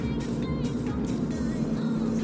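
Steady, loud rumble of a car cabin while driving on errands about a week and a half before Christmas, with a low engine hum and road noise filling the whole stretch without letting up.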